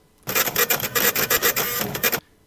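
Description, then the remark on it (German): A teleprinter clatters out a burst of printing for about two seconds as a telegram arrives, a fast, rhythmic mechanical chatter that is loud, starting and stopping abruptly with no voices. “Ah, da haben wir gerade ein Telegramm bekommen von einem allseits bekannten Blogger und zwar von Moritz Melem.”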